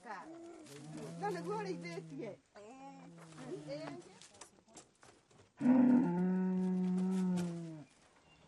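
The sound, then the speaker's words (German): Cows moo in a series of calls: two wavering, medium-loud lows early on, then a long, loud, steady moo that holds for about two seconds. “Die Hilfe ist sehr wichtig für mich, denn ohne sie hätte ich niemals die Kühe kaufen können.”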